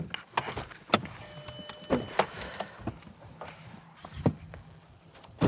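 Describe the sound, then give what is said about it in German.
An Audi rolls slowly to a stop over a light-coloured paved backyard courtyard, its tyres crunching and clicking in an irregular patter of sharp ticks over a low rumble, with no voices. “Sie lassen den Audi auf einem hell bepflasterten Hinterhof ausrollen.”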